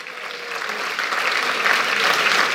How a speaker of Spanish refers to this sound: Aleluya, alguien denle un aplauso a Cristo.